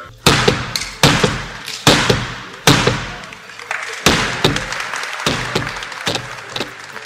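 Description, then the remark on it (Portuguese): São Paulo governor Tarcísio de Freitas bangs an auction gavel about ten times at uneven intervals at the end of the auction for the Rodoanel's northern section at B3 headquarters in São Paulo, each sharp, loud knock ringing out briefly over a steady wash of crowd noise that sounds like clapping. “Essas foram as marteladas do governador de São Paulo, Tarcísio de Freitas, no fim do leilão pelo trecho norte do Rodoanel.”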